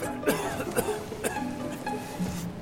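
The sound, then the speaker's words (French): Eugène Delacroix, feverish, coughs several times in quick succession, three or four harsh, raspy bursts, followed by a brief throaty sound as the fit trails off. “Delacroix tousse, il a la fièvre.”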